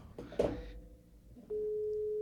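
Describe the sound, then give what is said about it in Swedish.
A brief clatter comes first, then a steady electronic phone tone starts and holds without a break, as an outgoing call placed from a phone rings out on the line, with no voices. “Jag ringer honom nu.”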